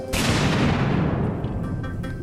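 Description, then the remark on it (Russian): A single loud bomb explosion, set off on 17 October 1994 when journalist Dmitry Kholodov opened a briefcase holding the device, erupts suddenly, then a heavy rumbling roar with debris-like crackle fills the space and slowly decays over the next two seconds. “Это он открыл кейс, в котором находилось взрывное устройство.”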